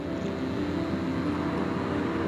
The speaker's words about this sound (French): Je laisse passer la voiture je suis dans le bourg de Faux